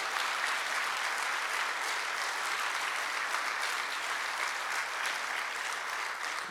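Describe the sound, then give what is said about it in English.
Sustained applause from a large church crowd welcoming a campus ministry's leaders and students, a dense, steady wash of clapping hands at even loudness with no voices standing out. “Give them a big welcome to the Chi Alpha's leaders and students.”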